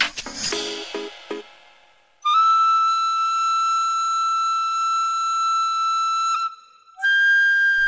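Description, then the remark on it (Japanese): A tenpuku, a small bamboo end-blown flute handed down only in the Kagoshima region of Japan, plays long, steady, breathy held notes, one sustained tone then a higher one after a short gap, clear, following a few brief bright clattering hits. “転、うん、覆という楽器なんですね。で、鹿児島地方にだけ伝わる小さな竹製の縦笛なんですよ。”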